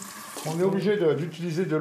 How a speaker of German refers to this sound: Es fließt wieder Wasser aus seinem Hahn in der Küche. Trinken darf er es aber nicht.